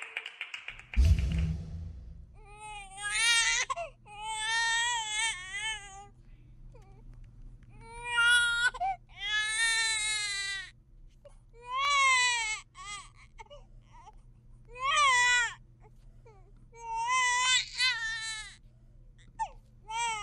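baby crying

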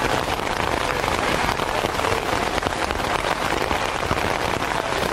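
light rain falling

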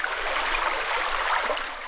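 creek water flowing

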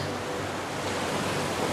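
ocean waves

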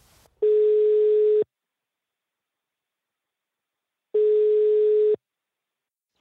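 telephone call ringing tone

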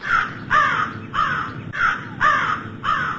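crow cawing

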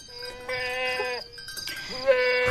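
goat bleating

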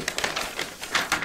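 newspaper pages rustling

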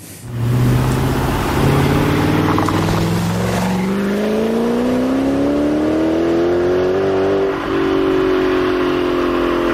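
V8 car engine revving

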